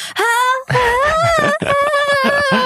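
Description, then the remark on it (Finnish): A voice imitates a strangled, stifled scream, as when failing to scream out loud alone in a forest: a loud, high, wavering cry broken into a few strained bursts over about three seconds, with no words. “Ja mä ajattelin, että nyt täällä ei ole ketään kuulemassa ja mä voisin vaan huutaa mun keuhkot ihan hajalle sillä Mutta mä mä en saanut sitä ulos.”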